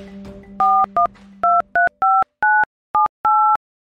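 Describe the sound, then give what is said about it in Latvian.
A telephone number is dialed to call about a classified ad for an eight-year-old husky needing a new home: eight crisp, evenly spaced keypad tones, each a brief dual-pitched beep, following a low steady dial tone that fades as the dialing begins. “Sazvanot, noskaidrojas iemesls - visierastākais.”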